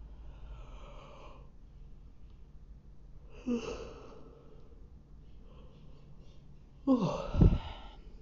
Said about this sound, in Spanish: Y si esos bostezos son liberación, limpieza, reprogramación, liberación de memorias, y todo es perfecto y lo sabes.